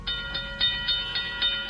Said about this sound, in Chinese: 现在是五点十六分，我们已经坐上了扬州回上海的一个那个高铁上了，回程了，回程了。